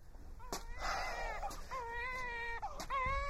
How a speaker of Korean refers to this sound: 어? 아기 울음소리가 들렸구나 어? 아들인지 딸인지 과연 순산을 했는지 어찌하여 소식이 이리도 지체되는 것이냐